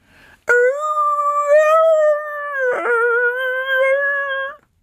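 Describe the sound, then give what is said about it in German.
A terrier mix dog howls loudly along while someone plays music, one long, steady, tuneful wail that breaks briefly partway through and then carries on for several more seconds before stopping. No one speaks. “dat der singt mit, hult as ein Werwolf.”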